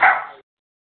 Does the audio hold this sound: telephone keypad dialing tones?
no